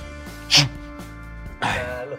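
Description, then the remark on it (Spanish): A single short, sharp sneeze bursts out, followed about a second later by a softer, breathy noise, over a faint steady hum. “Porque este, yo estoy dándote una explicación, de repente estornudo y tú me contestas, salud.”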